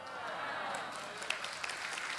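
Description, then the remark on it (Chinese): Soft, scattered applause from an audience, a steady patter of many hands clapping at low volume with a few sharper claps standing out, and no voices over it. “要鼓掌就大声鼓掌嘛！”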